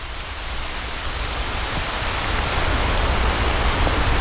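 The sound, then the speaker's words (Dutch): Steady rain falls in Neerijnen, a village in the Betuwe, in a dense, even hiss, with scattered drops pattering on a surface and a low rumble underneath; no voices are heard. “Het regent en dus nemen we plaats in het hutje waarin hij ook woont.”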